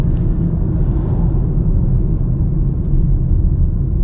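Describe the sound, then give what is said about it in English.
A truck slowing down rumbles, its deep, steady engine drone filling the whole stretch with loud low-end noise and no voices over it. “hold on i got a truck that's slowing down”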